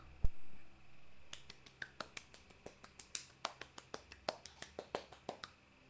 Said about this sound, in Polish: Teraz zostawię włączony filtr i przestawię drugi przełącznik.